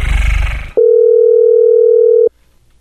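telephone dial tone

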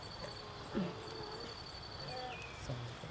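small birds chirping

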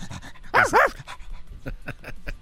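dog panting

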